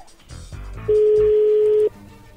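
A telephone being dialed to call a woman: a soft rustle of handling, then one loud, steady electronic tone that holds for about a second before cutting off. No one speaks.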